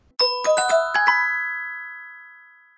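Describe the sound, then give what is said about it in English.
A Ring video doorbell chime rings out a quick five-note melody of bright, bell-like tones, then the last notes hang and slowly fade over a couple of seconds. No voices are heard. “Thank you for joining me on this discussion on the Ring video doorbell.”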